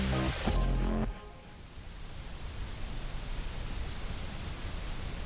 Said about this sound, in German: Das, was ihr da rauschen hört, das ist kein Staubsauger oder Föhn, sondern White Noise.